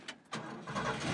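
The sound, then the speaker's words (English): The engine of a blue, rust-covered 1977 Ford F-100 pickup truck cranks with a couple of quick bursts, then catches and settles into a rough, steady rumble, with no voices. “This is the sound of my husband's 1977 Ford F 100 pickup truck.”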